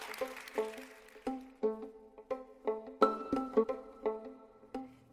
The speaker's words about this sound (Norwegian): Musikken du hører nå, er komponert av Olav Våstad og Gaute Tønder.